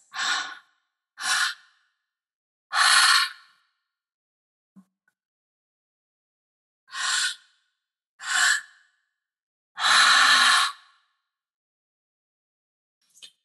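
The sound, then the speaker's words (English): Two rounds of three-part breathing, each made of two quick, sharp inhales filling the belly and chest followed by a longer, forceful full exhale through the mouth, clear with silence between rounds. “So, really filling up that belly, filling up that chest, and that full exhale release through the mouth, just emptying the tank.”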